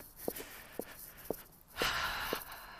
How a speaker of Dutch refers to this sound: Nu heb ik eh, houten hakken aan. Dus je hoort mijn eh, voetstappen klak, klak, klak op de tegels van de stoep.